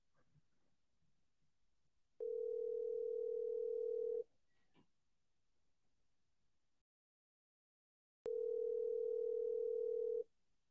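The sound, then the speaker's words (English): A phone line rings twice while the caller waits for someone to answer on a business line: two steady, two-second electronic ringback tones separated by a long silent pause, clear with no voices. “Let's see if somebody picks up.”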